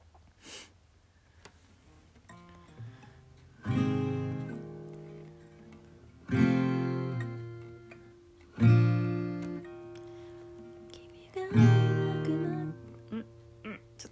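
A slow melody, the start of a song's chorus, tapped out on cups, with four main ringing notes a few seconds apart and softer taps between them. The tones are clear, each fading gently.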